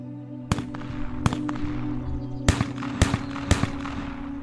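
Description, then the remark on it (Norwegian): Sharp, cracking gunshots ring out in quick succession, about eight reports in uneven bursts over a steady low hum, loud with a short echo after each. “Kanskje hørtes disse skuddene litt sånn ut.”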